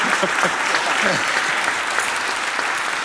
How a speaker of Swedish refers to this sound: En, en, en stor applåd.